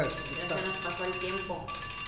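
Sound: doorbell ringing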